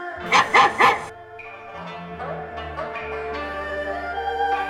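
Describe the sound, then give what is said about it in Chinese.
A dog wearing a bell barks angrily, three loud, quick barks in a row, then falls silent while soft music carries on alone. “他又吼又叫，巴不得把所有人啦、狗啦、猫啦、鸟啦，全都集合过来。”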